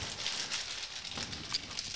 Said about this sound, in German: Ich höre schon im Hintergrund Krauschen und Knustern. Knustern und Krauscheln. Oh Mann. Knistern und Rascheln. Und jetzt hat er gleich alle Snacks zerdrückt.